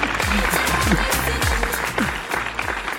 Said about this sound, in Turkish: Bir alkış daha göndereyim ben. Bir alkış daha gönderiyorum.